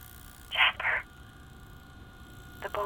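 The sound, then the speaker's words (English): A telephone rings in a quick double burst, then begins ringing again after a pause, the electronic trill fairly clear over a low background hum. “phones are already ringing.”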